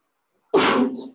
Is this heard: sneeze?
yes